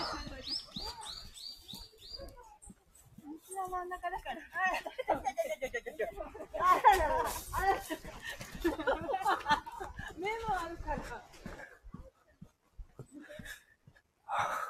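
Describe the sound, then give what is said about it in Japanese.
Dogs out on a walk yip, whine and pant as they chase each other, a run of high, quick chirps at the start, then busy overlapping vocal bursts with breathy gasps before the sound fades out. “犬の散歩でしている方、犬が追いかけ合っております。”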